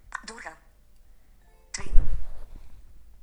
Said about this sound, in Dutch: heeft een melding gekregen